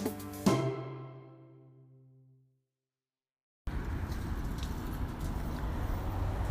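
A ringing chime-like tone fades out, followed by a short silence, then the steady, fairly loud rumble of a car on the road, with no voices.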